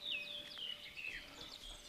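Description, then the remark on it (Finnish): A bird chirps with several short, high whistled calls over about two seconds, fairly quiet, with a faint steady hum underneath and no talking. “Tuo lintu.”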